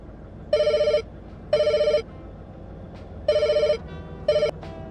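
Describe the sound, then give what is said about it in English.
A telephone rings in bursts of electronic trilling, four rings in a steady rhythm with brief pauses, the last cut short, over a low background hum. “Miss call? I left my phone in here after taking myself off the active duty on Reboot.”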